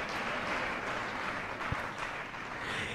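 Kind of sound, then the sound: crowd, audience applause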